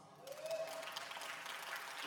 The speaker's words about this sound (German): Applaus.